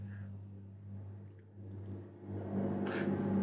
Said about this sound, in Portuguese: Olha esse caminhão espacial passando, gente.